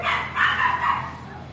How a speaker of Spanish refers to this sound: Ahí perdonen por los perros, pero pues son muy escandalosos, los perros chiquitos.